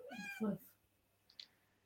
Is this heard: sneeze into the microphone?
no